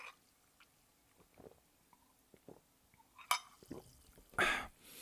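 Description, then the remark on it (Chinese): Sparkling water is poured into glasses for a toast during New Year greetings: scattered light clinks and taps of glassware, then a loud, bright fizzing rush of liquid near the end. No one speaks. “那但是呢，在开始之前呢，还是跟大家来用气泡水来拎几杯哦，拎几杯哦。”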